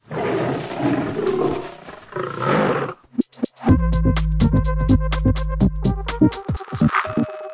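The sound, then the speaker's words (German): A lion roars loudly in one long, rumbling growl lasting about three seconds, then gives way to a brief electronic jingle of clicks and steady tones. “Trotzdem haben wir einen Löwen für euch als Infotier.”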